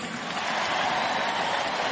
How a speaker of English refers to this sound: John Danks getting a nice round of applause here at the ballpark.